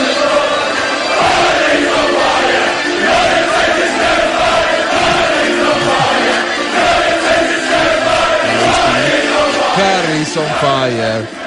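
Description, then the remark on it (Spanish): A large crowd of English football fans at the FanFest sings a rowdy chant about Harry Kane together, loud and continuous, many voices blending into a rhythmic, shouted melody that rises and falls over about eleven seconds. “Cantan los ingleses. Escuchen. Este es en el FanFest de anoche.”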